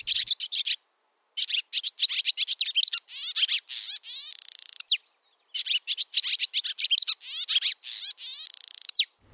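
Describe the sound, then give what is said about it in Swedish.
A bird's squeaky, bubbling call pours out in rapid bursts of high chirps and trills, clear, with short pauses between phrases and no voices present; made by birds flying around, a cheerful summer sound. “det är något slags lite så här, lite gnissligt, lite puttrande läte som, som de bjuder på när de flyger runt.”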